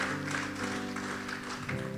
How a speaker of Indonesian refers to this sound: Boleh sekali lagi tepuk tangan bagi Tuhan Yesus.